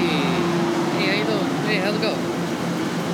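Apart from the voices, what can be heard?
train passing by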